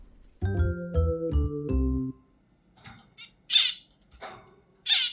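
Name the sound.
pet bird squawking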